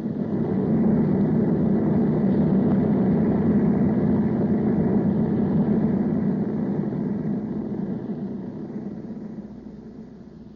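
A steady, low airplane engine drone from a plane flying above the rain, bound for Monterey, hums on without a break, heavy in the low range with a rough, rumbling texture. It eases slightly quieter near the end. Nobody speaks.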